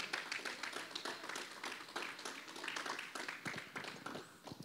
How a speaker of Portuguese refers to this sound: Você pode aplaudir o Senhor, pode aplaudir o Senhor.